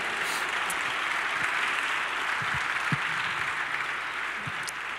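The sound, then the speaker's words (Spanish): Sustained crowd applause for God fills the whole stretch, a dense, steady wash of many hands clapping at an even loudness with no voices over it. “Dale un fuerte aplauso.”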